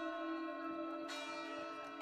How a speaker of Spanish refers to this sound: Es una campana de emergencia que se da cada vez que hay algún problema en el arca